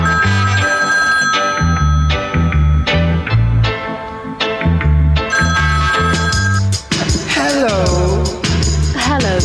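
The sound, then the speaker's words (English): A telephone rings repeatedly over a loud, thumping bass-heavy music beat, and a voice comes in toward the end as the ringing continues in the mix. “When me take a stop, me say me hear the phone ring.”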